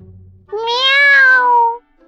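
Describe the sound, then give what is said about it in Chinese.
A single drawn-out meow from a cat held firmly in someone's hand, plaintive and pleading, rising slightly then sliding down in pitch over about a second, heard alone and fairly loud. “猫悠悠眼看自己手舞足蹈，外加张牙舞爪，完全没有起到一丁点作用，自己还是被万晨牢牢地掌握在手里，立刻准备发动自己拿手的卖萌攻势，对着万晨可怜兮兮地叫了一声，然后试图用自己的眼神去感化万晨。”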